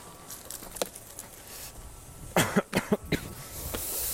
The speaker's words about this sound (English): oh, I know you guys are probably sick of me coughing already, but.